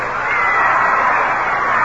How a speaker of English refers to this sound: An enthusiastic crowd here.